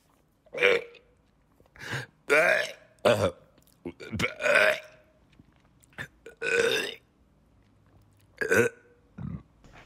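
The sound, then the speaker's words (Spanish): A series of loud burps, about a dozen short eructations in an irregular rhythm with brief pauses between them, some longer and more drawn out than others. “Ay, pichón, pero es que sí se lo echó bien fuerte, hombre.”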